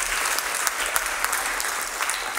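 An audience breaks into steady applause, a dense wash of many hands clapping together at an even level throughout, with no voices rising above it.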